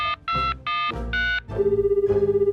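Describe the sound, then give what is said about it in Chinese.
A phone number is dialed with four quick electronic keypad beeps to call for food delivery, then a steady, warbling ring tone sounds as the call rings through. No voices. “打电话叫外送好了。”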